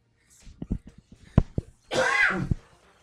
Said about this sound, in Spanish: ya me dio el COVID, que van a pensar, no, es una tosecita